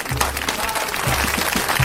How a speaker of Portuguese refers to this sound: É. palmas pro Palmeiras! Palmas pro Palmeiras!